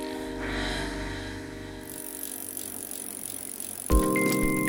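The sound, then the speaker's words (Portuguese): A bicycle is ridden around a neighborhood on a cold winter late afternoon, rolling along with a steady mechanical rattle and chain whir at moderate volume, the texture shifting partway through and turning louder near the end. No one speaks. “Te encontrei na bicicleta, perambulando pelo bairro.”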